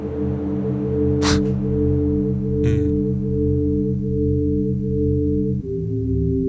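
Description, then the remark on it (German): A steady electronic drone from a modular synthesizer, made of six pitched frequencies extracted from filtered noise and holding together, with two brief bursts of hissy noise sweeping through near the start; no voices. “Das ist jetzt hier ein Rauschen und aus so einem Rauschen kann man dann verschiedene Frequenzen extrahieren.”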